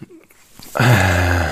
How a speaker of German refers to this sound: Wenn du ein Grunzen hörst, das ist mein Hund.